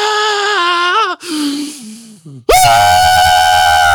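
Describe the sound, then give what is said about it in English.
A voice lets out a long, strained yell imitating a Super Saiyan powering-up scream. It breaks off briefly, then surges back even louder and fuller, sustained with no other sounds. “And every time you think he's done and he can't possibly scream louder, he screams louder.”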